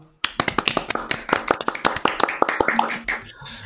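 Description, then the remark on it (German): Audience applause starts abruptly and continues steadily: many hands clapping in a dense, irregular patter of sharp, bright claps at moderate loudness, with no voices. “Applaus dann, für die Lisa.”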